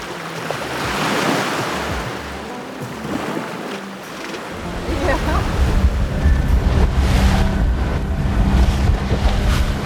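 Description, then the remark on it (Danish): A blue speedboat, many hundreds of metres from land, pounds across high ocean waves on its way out to a floating hut with an underwater room, with a steady low engine rumble, rushing water and wind buffeting the microphone; the engine noise grows stronger midway and stays loud. “Jeg sidder nu helt henne forrest i øh, den blå speedbåd, som tager mig ud til undervandsrummet. Og bølgerne er rigtig høje her.”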